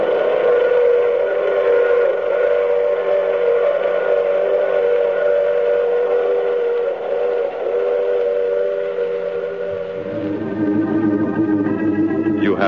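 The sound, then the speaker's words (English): A sustained, chord-like steam train whistle blows loudly over the rumble of a running train, holding steady before shifting pitch near the end. “I take this same train every week at this same time.”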